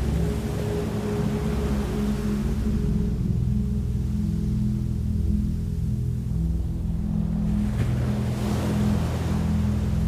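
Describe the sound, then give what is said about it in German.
Ocean waves wash steadily onto a beach at night under a full moon, a continuous surf roar that swells at the start and again near the end, with a low droning hum running underneath throughout. “TRAUMREISE Strand bei Nacht”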